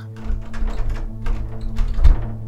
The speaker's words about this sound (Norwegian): Det klinger litt i glasset i døren idet personen utenfor forsøker å åpne den en gang til. Så blir det stille. Personen utenfor tror at banken allerede er stengt, og går.